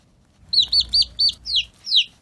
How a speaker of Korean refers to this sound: 병아리 소리예요. 이쁘죠? 네, 병아리 소리. 노래하고도 좀 잘 어울릴 거예요.